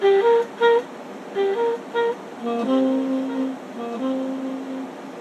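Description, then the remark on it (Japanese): A bright synthesized note is struck only at the start of the bar, then repeats several times as short, evenly spaced echoes from a two-beat delay effect before longer sustained tones hum and fade out, with no voices present. “同じように2拍のディレイをかけて「ダラッタから小説の頭だけがこう鳴らしてその後は反響音がこう響いてるだけなんですけど”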